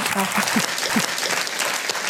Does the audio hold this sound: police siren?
no